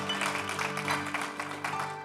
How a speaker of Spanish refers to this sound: ¿Cuántos dan gloria al nombre del Señor, hermano? Denle ese aplauso fuerte a Cristo.